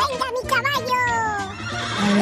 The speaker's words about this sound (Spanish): Ay, qué bonito tu caballo, Quieto, quieto.